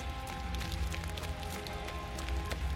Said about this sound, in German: Der Regen nimmt noch zu. Er treibt mich klatschend auf den perspektivischen Fluchtpunkt der Straße zu. Und dann bin ich selbst nur noch ein perspektivischer Punkt im Regen.